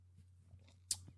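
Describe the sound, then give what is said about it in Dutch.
A quiet sip followed by a short wet smack of the lips as someone tastes whisky, over a low steady hum with no talking. “We gaan eens een slokje nemen, dus iedereen thuis eh, proost.”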